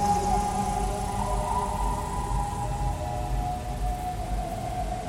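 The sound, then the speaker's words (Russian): A steam locomotive whistle blows a steady, sustained, tuned chord of several notes for about five seconds, layered over a low, continuous rumble and hiss, with no voices. “Паровозный гудок — это нота. Это три, а то и пять нот, взятых в аккорд.”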